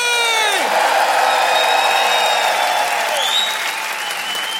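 A large audience applauds loudly and steadily, with scattered whoops and cheers rising above the dense clapping throughout, welcoming comedian Chris Mokuna on stage at the Montre Comédie comedy show.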